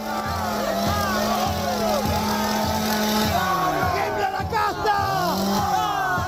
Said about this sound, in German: genauso wie die Motorsäge, die Millet nun zückt und rühren lässt